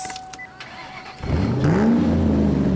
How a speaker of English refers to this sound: the sound of this engine. Music to my ears. I tell you.